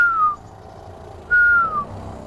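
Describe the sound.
Two clear, high whistled notes, each sliding gently downward, separated by a short pause: a person whistling an imitation of a little owl's call, with no talking.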